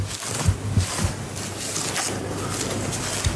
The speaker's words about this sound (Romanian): Haideți să auzim puțin ASMR. Ia să vedem dacă mi iese. Aici un domn uh, freacă o pană. Practic se pare că pentru mulți acest sunet este foarte plăcut.